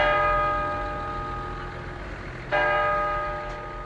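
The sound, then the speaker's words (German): A church tower clock chimes the quarter hour: a long ringing bell tone with rich harmonics slowly decays, then a second loud strike at about two and a half seconds rings on alone. “auch wenn die Kirchturmuhren noch heute den Viertelstundentakt in die Luft senden.”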